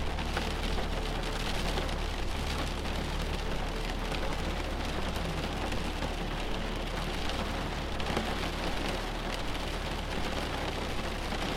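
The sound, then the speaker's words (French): Heavy rain from an arriving storm pours down steadily, a dense, continuous hiss of drops drumming on surfaces, with no voices and no break for the whole stretch. “la pluie s'accentue.”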